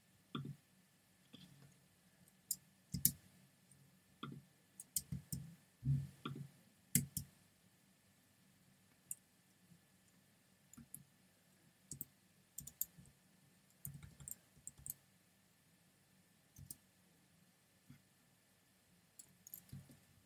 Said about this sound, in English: Sorry guys, I'm just typing in. I typed in the wrong thingy.